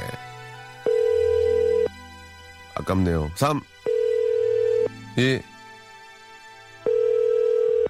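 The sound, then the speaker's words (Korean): A telephone ringback tone from a call placed during a radio broadcast repeats three times, steady one-second tones with roughly two-second gaps, while a person speaks briefly between the rings. The call goes unanswered. “아, 안받네 이거 어떻게 된 거야, 이게.”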